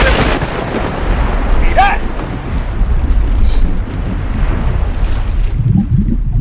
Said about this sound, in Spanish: Dale, la tremenda tormenta que viene por ahí.